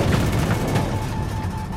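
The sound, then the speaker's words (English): A loud, deep explosion from the film Oppenheimer, its centerpiece explosion, rumbles continuously for a couple of seconds, thick with low booming energy and punctuated by sharp crackling bursts, with no voices. “Yes, of course, there's the Trinity test and the film's centerpiece explosion”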